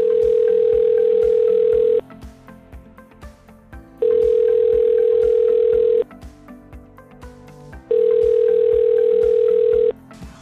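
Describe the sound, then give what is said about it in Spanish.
A video call ringtone: a steady electronic ringing tone repeats three times, each pulse about two seconds long with short gaps between, clear over a faint musical background. “Le haré una videollamada.”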